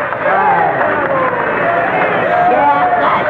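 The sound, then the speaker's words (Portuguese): A loud, dense crowd roar of cheering and clapping, many voices shouting together at once, sustained at steady volume for a few seconds. “Palmas para o grande asno microinfame.”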